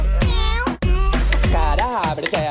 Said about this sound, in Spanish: Y mi gato hace miau.